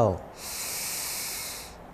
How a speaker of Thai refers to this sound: หายใจออก หายใจเข้า